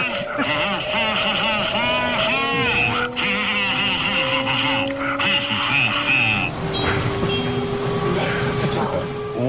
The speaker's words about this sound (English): if you're catching a train to Newcastle, I've just heard this uh, playing on the speakers on every carriage will be me humming the classics from Hum Dinger. Here's how it sounds.